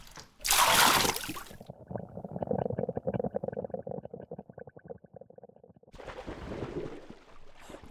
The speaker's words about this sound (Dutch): Je laat mijn microfoon in het afwaswater vallen. Oh, hoe gaat hij dadelijk nog kapot?